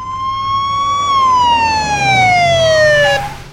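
A loud siren wails on a single sustained tone, rising slightly and then sliding steadily downward in pitch, over a low rumble of road traffic, as a car speeds toward a red Jaguar stopped at a stoplight. No one speaks.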